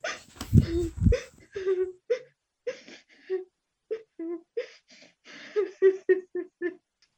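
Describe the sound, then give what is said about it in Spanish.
A mud-covered girl cries and whimpers in short, halting sobs, with a couple of stronger gasping bursts at the start followed by a steady series of breathy, broken whimpers, moderately loud. “¿por qué estás llorando?”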